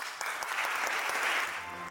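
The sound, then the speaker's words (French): Sustained, dense applause from a standing theatre audience at the end of a three-hour performance, a steady wash of many hands clapping at once without pause, loud and even throughout. “Les applaudissements sont nourris et la salle est debout.”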